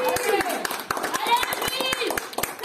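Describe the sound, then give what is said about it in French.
Audience clapping in a steady, fairly quick rhythm of sharp hand claps, with excited voices and cheering mixed in over the applause. “Allez, les Sacré travail d'équipe, on les applaudit, on les encourage.”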